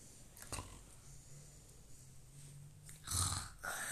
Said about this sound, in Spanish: Está roncando.